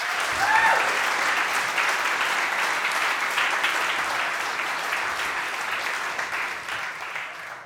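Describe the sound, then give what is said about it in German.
Sustained audience applause with dense, steady clapping throughout, fairly loud and even, easing slightly toward the end. A brief faint voice-like tone rises near the start. “Das ist schon mal ein Applaus wert.”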